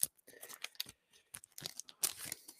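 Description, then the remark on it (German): An After Eight mint chocolate thin is snapped in two, giving a quiet run of crisp, irregular cracks and crackles over a couple of seconds, with no one speaking. “Und dann breche ich es in zwei Teile und dann läuft dann so eine wunderbare zähe Masse zwischen diesen beiden Schokoladenblättchen hinaus.”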